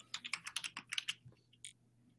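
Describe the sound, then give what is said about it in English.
Rapid clatter of keystrokes on a computer keyboard as someone looks something up, a quick irregular burst of crisp clicks, tapering off into a few isolated taps before falling quiet. “Quick, we can hear it. I know. Hold on, I'm, I'm looking something up.”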